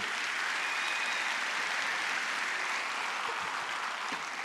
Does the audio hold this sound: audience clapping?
yes